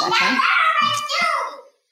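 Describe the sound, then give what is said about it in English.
A young girl's high-pitched, excited yelling carries on for nearly two seconds, strained and loud with a bright voice, before cutting off abruptly. “oh uh, gosh, hold on one sec. My daughter sure. is yelling”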